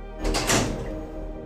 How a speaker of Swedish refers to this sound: Tunnelbanan är Tokyos blodomlopp och när dörrarna stängs verkar allt vara som vanligt.